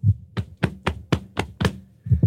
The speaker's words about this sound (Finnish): Taputtelen vatsaani tällä hetkellä, josta, josta kuuluu tällainen ääni.